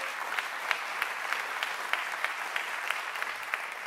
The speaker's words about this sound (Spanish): Y, y si no quiere aplaudir, no aplauda, pero si lo va a hacer, hágalo bien.